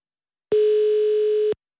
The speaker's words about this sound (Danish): Oh, jordlinje igen, kan man høre. Lidt abrupt ringen.